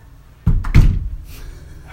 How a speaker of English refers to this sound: Every once in a while, secret doors will open up in our house, and little faces will appear.